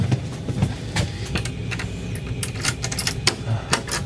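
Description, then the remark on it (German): An air conditioning unit blows with a steady, loud low rumble throughout, while scattered sharp clicks and light jangling rattles pop up on top of the constant drone. “Was ihr übrigens so laut bläst, ist die Klimaanlage.”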